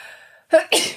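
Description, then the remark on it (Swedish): A single loud sneeze: a sharp intake of breath followed by an explosive burst, preceded by a faint trailing murmur. “Vänta, jag måste nysa.”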